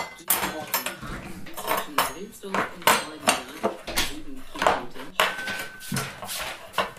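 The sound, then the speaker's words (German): Plates and cutlery being laid on a table: repeated clinks, clatters and scrapes of dishes and silverware in an irregular rhythm, fairly loud throughout, with no voices. “Ich decke gerade den Tisch.”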